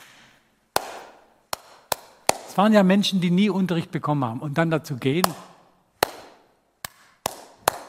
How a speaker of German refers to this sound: Wir hatten insgesamt 17 Lehrer und was die machen mussten, war sehr körperbetont. Es fängt damit an, dass sie ganz einfache Sachen erstmal klatschen müssen. Ne?